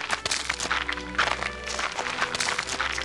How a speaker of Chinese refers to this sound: 当天晚上，雪伍的森林里的伙伴正围着熊熊大火吃烤鹿肉，附近忽然传来脚步声。